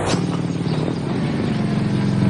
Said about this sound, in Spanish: Más tarde, Andrea cara cortada, con otro de sus estrafalarios atuendos. Este con un casco que lleva la cámara incluida. Llega en su moto a casa Yukali. La aparca frente a la entrada y se apea.